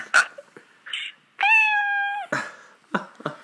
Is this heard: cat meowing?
yes